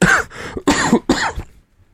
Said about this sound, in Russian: Уважаемый слушатель, прошу прощения, я чуть приболел, буду иногда кашлять.